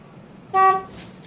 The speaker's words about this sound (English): then um, Randy Quaid accidentally honks the horn